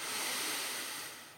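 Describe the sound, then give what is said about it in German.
One long, airy, deliberate deep breath, fairly loud, a steady rush of air that holds for over a second before tapering off. No one speaks. “Das klingt so wahnsinnig banal, aber einmal atmen bringt bei mir schon so viel.”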